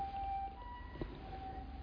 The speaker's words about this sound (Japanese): なんか救急車が来てる 来てるっていうか通ったんだな